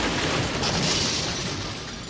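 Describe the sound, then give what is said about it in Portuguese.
A large tree, brought down by the force of the wind, crashes onto a house in a loud, sustained roar of snapping wood and rumbling impact that holds steady for about two seconds before easing slightly, with no voices. “Com a força do vento, essa enorme árvore desabou em cima de uma casa.”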